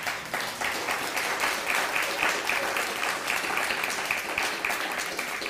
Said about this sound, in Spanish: Dale un fuerte aplauso al bendito sea.